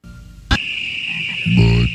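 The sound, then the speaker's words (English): A deep, throaty frog croak from a Budweiser beer commercial sounds once near the end, after a sharp click and over a steady high-pitched whine of nighttime ambience. “That's the Budweiser frogs.”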